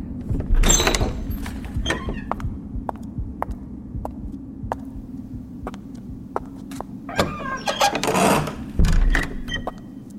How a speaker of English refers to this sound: I ran quickly up the steps and threw open the door.